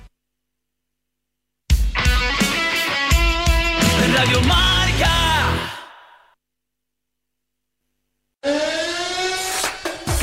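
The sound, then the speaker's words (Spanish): A loud siren wails for several seconds with a warbling, layered tone, signaling that the next round of football matches is about to begin; it fades into silence, then starts up again abruptly near the end. No one speaks. “suena la sirena que está a punto de empezar el siguiente turno en nuestro fútbol, en primera y en segunda división.”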